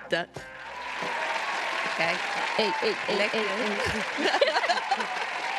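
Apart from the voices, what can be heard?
applause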